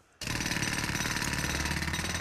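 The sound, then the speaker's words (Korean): Loud, harsh snoring of a man in a hospital delivery room that sounds like a jackhammer drill: a dense, rapid rattling roar that starts abruptly after a brief quiet moment and holds steady without pause, with no talking. “처음에 어디서 드릴이라도 박는 줄 알았는데 알고 보니 그 남자의 고고는 소리더라고요.”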